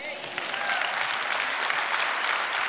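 Sustained applause from a church audience, given to Christ during a sermon: a dense bright crackle of many hands clapping at a steady loud level throughout with no talking over it.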